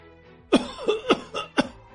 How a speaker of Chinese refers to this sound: 赵坤本来身体就还没有完全恢复，被他气到，剧烈的咳嗽起来。